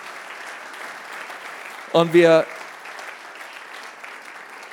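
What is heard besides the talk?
audience applause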